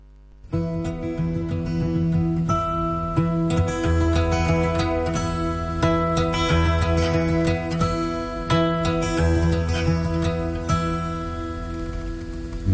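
A soft song plays steadily, with sustained tones and a regular rhythm of light strummed or plucked attacks, no voices yet, at an even, moderate volume throughout.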